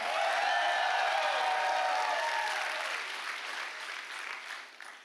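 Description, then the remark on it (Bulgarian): A large audience claps loudly and continuously during a sermon, with scattered cheers and shouts woven into the applause early on, the ovation gradually thinning and fading toward the end. “О, хайде, ръкопляскай, ако вярваш. Извикай малко, ако вярваш.”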